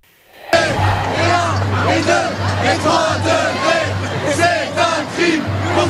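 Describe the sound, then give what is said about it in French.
Tens of thousands of young protesters (high school, middle school and university students) chant loudly and steadily while marching with placards and banners through the streets of Paris in an afternoon ecology protest, voices rising together in rhythmic shouts, with a low droning hum underneath throughout. “Cette clameur a résonné dans les rues de Paris cet après-midi. Un cri d'alarme lancé à l'unisson par des dizaines de milliers de jeunes.”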